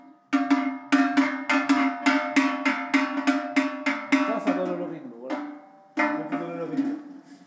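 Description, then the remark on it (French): A Savoie livestock bell clanks in a quick, steady run of metallic strikes, each ringing briefly, then pauses and resumes with a few more rings. “Ça, c'est cloche de Savoie.”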